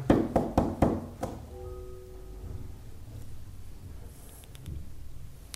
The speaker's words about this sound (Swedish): Men jag, ja, jag knackar på eh, någonstans. Det är tyst ett tag. Jag tittar in lite så här om de har något fönster vid sidan av. Du, du, det, var, det var någon där inne i alla fall. Knackar jag igen?